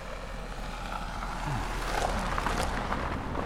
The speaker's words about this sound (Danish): Kom der lige en bil. Men, men, men, men, men lige nu også, der betyder det så meget for mig det her det vi taler om. Mm. Så den, den her bil, der kører forbi nu, den, øh, den, den, den gik ikke ind og, og påvirkede mig på nogen måde